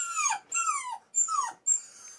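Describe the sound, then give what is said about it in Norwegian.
A dog whimpers in four drawn-out, high-pitched whines, each sliding downward in pitch, repeated in quick succession with short gaps and no talking, in a side room at Nordberg animal clinic in Oslo where dogs lie in a row waiting their turn. “På et siderom ligger hundene på rekke og rad og venter på tur.”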